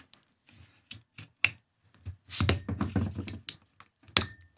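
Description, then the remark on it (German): Scattered clicks and plastic handling sounds lead up to a short, sharp burst of hiss as the cap of a bottle of Rügener Kreidewasser carbonated water is twisted open, followed by more rustling and a final tap. “So, jetzt ist sie auf. Wir haben das Zischen gehört.”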